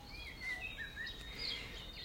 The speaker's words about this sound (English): It's hard to say goodbye, but the coolness and birdsong, as well as my own sense of wonder, follow me the final kilometer to camp.